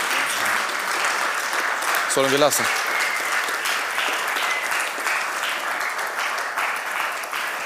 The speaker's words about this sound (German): Und vielen, vielen Dank nicht nur für diesen Abend, sondern für euren Dienst in der Jugend, in der Jugendteam. Lasst uns Sie bedanken mit einem Applaus, mit einem kräftigen Applaus.